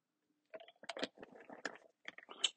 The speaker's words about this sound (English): One moment, let me take a sip of my water.